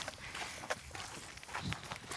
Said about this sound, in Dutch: Ja, je eh, hoort onze voetstappen waarschijnlijk in al. In het zand. Hier is heide, er zijn berkenbomen.